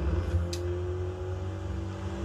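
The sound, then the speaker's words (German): A steady, droning video game car engine, accelerating flat out along a road, hums loudly and continuously, its low harmonic tone holding throughout with a brief hiss of noise near the start. “Ah, hier ist eine schöne Kickdown-Straße. Aus dem Weg.”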